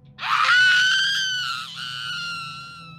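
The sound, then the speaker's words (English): A woman who has just popped up to the surface of the water, taking a huge breath, lets out a long, piercing, loud scream, sustained for nearly three seconds with a brief wavering dip partway through before trailing on. No other voices. “This thing submerged her underwater, but she was able to kick it off, and she popped up to the surface, taking a huge breath, then screaming her lungs out.”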